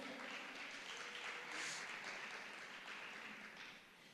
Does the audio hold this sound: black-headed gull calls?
no